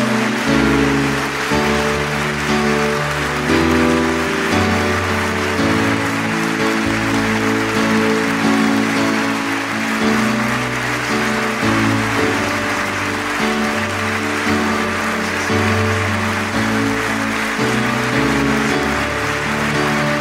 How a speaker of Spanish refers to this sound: Dale fuerte, fuerte ese aplauso. Fuerte.